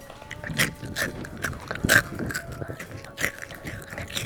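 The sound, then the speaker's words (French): Crisp crunching of dry Crunch cereal being chewed, a rapid series of sharp bites and crackles repeating irregularly over a few seconds, with no talking. “Pourquoi ça s'appelle crunch, les gars, à votre avis Ça fait quoi comme son dans ta bouche quand tu les manges Crunch. Vas-y, essaye, voir.”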